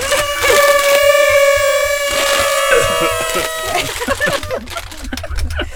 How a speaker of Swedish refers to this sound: Ska vi blåsa i partytuten en gång till? En gång till, mm. ja. Sista Ta gången. en tuta. Ja, sista gången, ta en tuta.